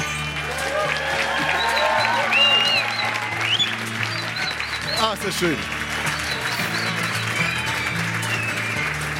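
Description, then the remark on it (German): A live audience at the Franz Club in Berlin-Prenzlauer Berg applauds steadily throughout at the Radio 1 show Bonnie's Ranch, a dense wash of clapping with some cheering, while a voice speaks over it. “Hören Sie nicht auf zu applaudieren. Machen Sie einfach weiter.”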